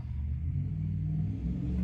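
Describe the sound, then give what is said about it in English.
A deep, steady engine rumble from a loud car outside, heavy in the low end and holding at a constant level throughout, with no voices. “A loud car. That's not a Prius.”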